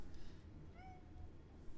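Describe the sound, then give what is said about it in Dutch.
A single short meow from a white-and-black cat, fairly soft, rising then falling over a low background hum, with no one talking. “op de radio kennis maken met deze kat”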